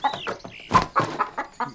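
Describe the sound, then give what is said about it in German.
A German bantam hen (white-black Columbian colouring), held on a person's arm, clucks in a quick series of short calls, several bursts in a row with brief gaps, fairly loud and with nothing else audible behind them. “Und hier haben wir ein deutsches Zwergreichshuhn. Farbenschlag weiß-schwarz, Kolumbia.”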